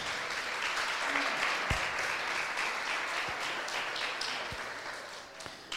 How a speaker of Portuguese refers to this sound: Olha, vocês fizeram muito lindo, ficou como um filme de Hollywood. Vamos aplaudir os casais?